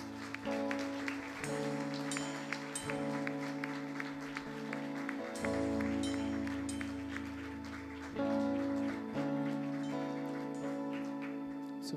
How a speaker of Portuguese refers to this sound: Aplauda Jesus, querido.